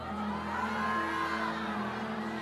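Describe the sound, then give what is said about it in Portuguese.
An audience shouts and cheers together in a steady, sustained roar of overlapping voices, a dense wash of crowd noise lasting a couple of seconds with no single voice standing out. “Grite bem alto, tô saindo é meu último dia no Egito hoje.”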